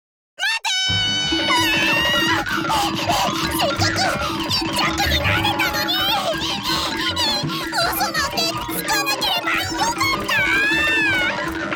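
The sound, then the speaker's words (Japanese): Loud, frantic cat meows and yowls tumble over shrill squeaks in a continuous scuffle as a cat and a mouse fight and the cat chases the mouse, pitches sliding up and down for nearly twelve seconds. “こうして猫とネズミは大喧嘩。猫はネズミを追いかけ始めます。”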